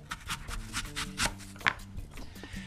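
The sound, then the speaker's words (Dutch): A small potato-peeling knife cutting an apple, slicing half of it off to go in yogurt, a quick series of crisp, crunchy cutting strokes in a steady rhythm, with one sharper snap near the end and no talking. “Een hele appel in de yoghurt, dat is ook weer zo wat. Dus ik heb nu de helft ervan afgesneden.”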